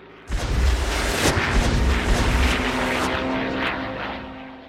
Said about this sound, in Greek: Καμιά φορά το βουητό των αεροπλάνων πάνω από το κεφάλι μας σκορπίζε μεγάλο εκνευρισμό στο κοπάδι.